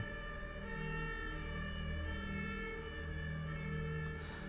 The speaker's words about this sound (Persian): صدای آژیر آمبولانس رو از توی اتاقت میشنوی وقتی که روی تخت نرم دراز کشیدی